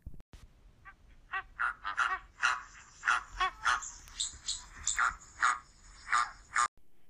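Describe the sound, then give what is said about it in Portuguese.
A flamingo squawks loudly over and over, a rapid series of harsh, honking calls in quick rhythm, prominent with no voices present. “Ele voou até o céu e grasnou bem alto.”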